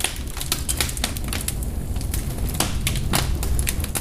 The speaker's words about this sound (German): Und so entfachte das Feuer im offenen Kamin, der den großen Salon der Familie Ebersbach in zwei Teile teilt. Die Flammen beginnen zu lodern.